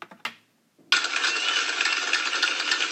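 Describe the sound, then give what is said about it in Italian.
A few sharp, isolated claps, a brief pause, then a sudden dense wash of applause that holds steady and fairly loud to the end, with no voices. “Questo era un applauso, non so se si è capito bene”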